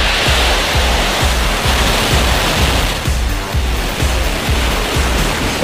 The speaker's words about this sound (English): Five, four, three, two, one, zero. Ignition, lift off.